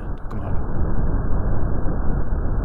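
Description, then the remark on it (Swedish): A recording of moving stomach-bug bacteria: a steady, dense, muffled roar like rushing wind or a rumble, continuous and fairly loud throughout, with no distinct individual sounds standing out. “Det här är ljudet av bakterier bakterier.”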